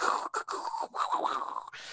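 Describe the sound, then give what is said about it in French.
A voice imitates a lightning strike with the mouth, making a loud, hissing crackle with brief breaks, lasting about two seconds. “Ça, c'était un bruit d'éclair.”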